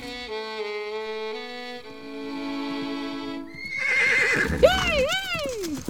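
A horse neighs loudly near the end, a long shaky whinny rising and falling in pitch, preceded by a few seconds of steady tonal sounds with no talking.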